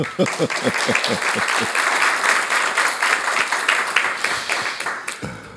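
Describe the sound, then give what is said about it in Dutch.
An audience at the talk show Je mag me alles vragen breaks into applause for journalist Jeroen van Bergijk, many hands clapping in a dense, steady patter that holds for several seconds before stopping abruptly. “Klein applaus, alsjeblieft.”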